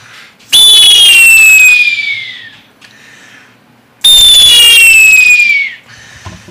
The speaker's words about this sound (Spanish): Estos son unos sopladores del estado de Oaxaca, pero que a su vez en la música también son utilizados para hacer la similitud de las aves, el sonido de las aves cuando vuelan.